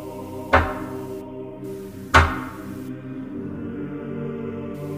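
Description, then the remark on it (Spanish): A man knocks twice on a door with his knuckles. The two solid knocks are spaced about a second and a half apart, each a sharp thud with a short ringing decay, over a faint steady background with no talking. “Piensa un momento frente a la puerta toca dos veces.”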